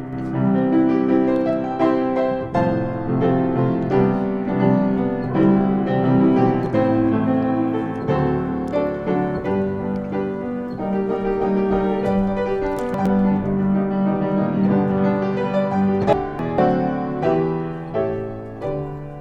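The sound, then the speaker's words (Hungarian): Solo piano played live by Tibor Kocsák, with flowing chords and melody lines ringing out steadily and fairly loud for the whole stretch, with no voices over it. “Hát, ha, tudom, ha látsz egy, zongorát, akkor, akkor lehet, hogy oda akarod, tudsz ülni.”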